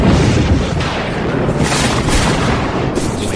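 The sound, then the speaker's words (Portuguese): A loud thunderclap from a lightning strike hitting a crowd of people, a heavy continuous rumble with a few sharper crackling bursts rolling through it over about three seconds, with no voices. “relâmpago atinge aquelas pessoas sedentas pelo sofrimento da heroína”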